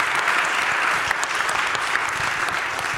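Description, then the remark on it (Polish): A room full of people claps steadily and fairly loudly for an arriving speaker, a dense, continuous wash of applause that holds its level throughout with no voices rising above it. “zróbcie dla niego hałas.”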